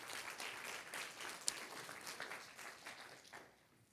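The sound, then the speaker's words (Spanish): A crowd applauds in a dense, sustained wash of many hands clapping, fairly steady with a sharper clap near the middle, then thinning and fading out toward the end. “Un aplauso fuerte, señor, fuerte Señor, lo fuerte.”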